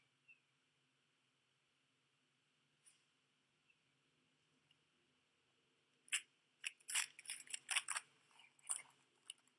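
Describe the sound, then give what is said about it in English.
After a quiet stretch, crackling and crinkling bursts of tape being peeled from gift wrapping paper as a present is opened, coming in quick, irregular tugs for a few seconds, with no one talking. “And when we have people that open little tape so they don't tear the paper, oh, the suspense is killing me.”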